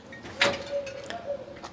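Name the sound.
door being opened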